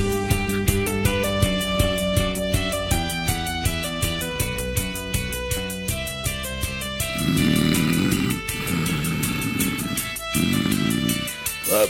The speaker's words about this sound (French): Putain de sonnerie de merde, il est où mon téléphone